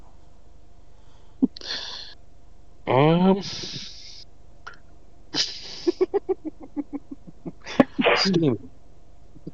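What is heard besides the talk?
person sneezing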